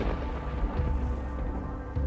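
A deep, steady rumble of thunder rolls on for about two seconds, heavy in the low end and fairly loud throughout, with no voices over it.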